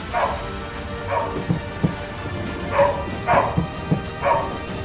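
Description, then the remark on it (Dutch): A search dog barks repeatedly in short yips after finding a trace, about five or six barks spaced unevenly over a few seconds, clear against a low background hum. “de hond heeft een spoor gevonden.”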